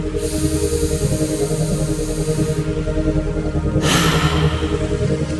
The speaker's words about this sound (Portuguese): Você vai inspirar contando até 5 lentamente e soltar rápido pela boca, contando até 3. Vamos juntos.